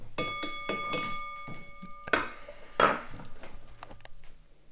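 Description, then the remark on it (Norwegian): Someone taps a glass with a utensil to call for attention before a speech at a 17 May (Norwegian Constitution Day) breakfast: a quick run of bright clinks with a sustained ringing tone, then a couple of slower, louder taps. No one speaks. “Jeg kan klirre i glasset for deg, for det kommer sikkert ikke du til å gjøre.”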